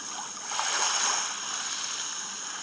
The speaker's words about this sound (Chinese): 这个软件的功能啊非常简单，它呢就是能够放出来这个白噪音，各种各样的声音，给大家来听一下啊。好，这是鸟叫的声音，再来。好，水的声音。